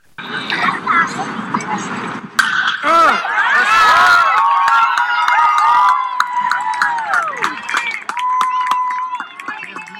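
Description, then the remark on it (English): A sharp crack of a baseball bat squarely hitting a line drive to the opposite field over the second baseman's head at T-Mobile Park, followed by a crowd erupting in loud, sustained cheers and shouts for several seconds. “but yeah, that I mean, you hear that, and that's some solid contact.”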